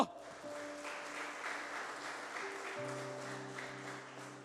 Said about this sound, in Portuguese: E se você crer nisso, aplauda o Senhor bem alto.